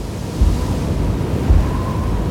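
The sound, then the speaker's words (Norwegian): Strong wind roars in a full storm over rough sea in a fjord near the island of Smøla, with waves surging and crashing, a dense, continuous rumble with a couple of heavier low thumps from gusts buffeting the microphone. “Vinden øker enda mer.”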